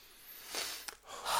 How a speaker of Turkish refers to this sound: Bence şu anda derin bir nefes alıp konuyu değiştirelim.